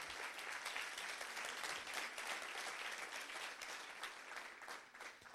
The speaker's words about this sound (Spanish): Vamos, denle un mejor aplauso You need to give the Lord a better hand clap.